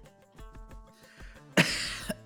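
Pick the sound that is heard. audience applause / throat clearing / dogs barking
throat clearing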